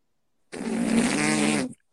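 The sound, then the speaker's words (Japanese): A voice makes a single sustained buzzing fart imitation, a low rumbling raspberry lasting a bit over a second, fairly loud and alone after a brief silence. “脳みそに fart は何でしょうかブー、ブー、おなら。”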